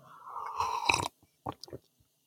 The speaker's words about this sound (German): Ich mache jetzt mal, um zu signalisieren, dass ich wirklich trinke, schlürfe ich dabei.